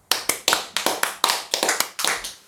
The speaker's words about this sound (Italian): Dalla regia, regia applauda.